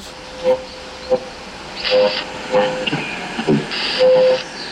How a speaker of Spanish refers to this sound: No puedo comunicarme. Hay demasiada estática, señor.